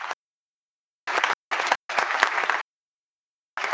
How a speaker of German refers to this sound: Deswegen nochmal großen Applaus